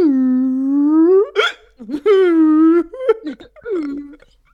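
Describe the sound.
A voice imitates whale song with long, sustained, slightly rising hums broken by sharp hiccup-like gulps, followed by shorter wavering moans and catches of breath.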